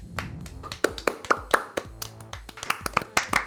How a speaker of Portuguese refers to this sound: Palmas pro Chase Young.